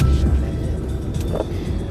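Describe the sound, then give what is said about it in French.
A delivery van rumbles low and steady as it comes to a stop at its first delivery address, with a brief mechanical creak of the handbrake being pulled partway through. No one speaks. “Voilà, on arrive à la première adresse de livraison. Petit quignot, frein à main.”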